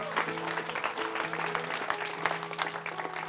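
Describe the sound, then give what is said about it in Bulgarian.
A crowd claps steadily and continuously for Jesus for the whole stretch, a dense crackle of many hands at moderate loudness, with sustained low musical tones humming underneath. “Това е подготовката за нещо свръхестествено ръкопляска на Исус, ако вярваш в това.”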